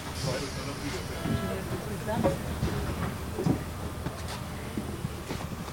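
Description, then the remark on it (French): An RER C suburban train runs on its rails at Javel with a steady rumble and scattered clacks and squeaks. Indistinct voices murmur underneath the continuous noise. “Le RERC, je le prends presque tous les matins c'est mon RER.”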